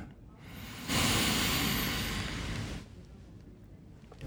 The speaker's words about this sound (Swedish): Kan vi ta ett djupt andetag, andas in